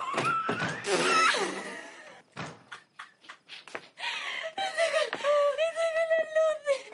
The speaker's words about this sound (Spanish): Sale y cierra la puerta.